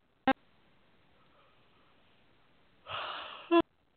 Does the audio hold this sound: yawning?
yes